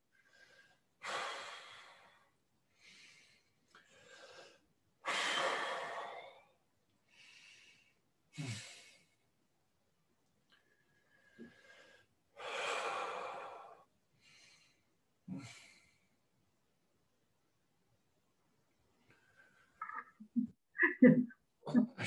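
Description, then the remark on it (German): Heavy, effortful breathing: long noisy inhales and exhales repeat in uneven bursts, fairly loud, with a few short puffs and snorts near the end and no talking. “Ja, das machst du gut. Mit Atmen, ja.”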